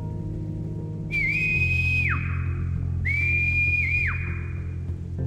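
Two faint sustained whistles heard from above, each about a second long with a steady pitch that dips at the end, the second answering the first, over a constant low rumbling background.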